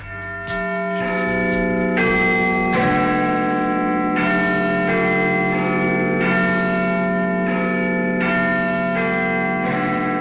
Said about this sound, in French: Ça y est, elle est mise tout en haut de la tour et les Anglais, les Londoniens, entendent pour la toute première fois le son harmonieux et mélodieux de cette cloche de 13,5 tonnes.